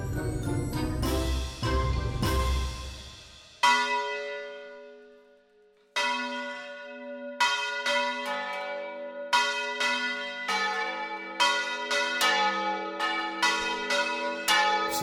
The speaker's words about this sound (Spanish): es verdad que tocamos las campanas de forma tradicional, pues porque el volteo de las campanas es una forma eh, mm, muy tradicional española de hacer sonar las campanas a gloria, ¿no? A super fiesta.